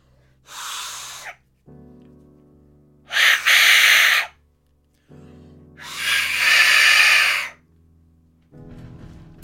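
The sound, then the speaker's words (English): An Aztec death whistle blown three times, each blast a harsh, breathy, hissing shriek lasting about one to two seconds, the last longest, with quiet pauses and a low hum between them. “So there you go, that was the Aztec death whistle”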